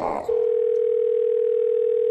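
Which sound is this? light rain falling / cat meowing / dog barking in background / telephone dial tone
telephone dial tone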